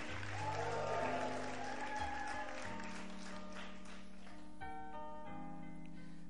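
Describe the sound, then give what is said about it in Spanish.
A crowd claps steadily over sustained keyboard chords, the applause fullest in the first couple of seconds and then thinning as the held organ-like notes carry on. “¿Quién aplaude a palabras que nos abren los ojos?”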